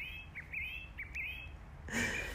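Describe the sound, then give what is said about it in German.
A bird sings in a garden, a series of short, bright chirps and warbles ending in a louder, fuller burst of song over a low background hum. “Ich weiß gar nicht, was für ein Vogel ist.”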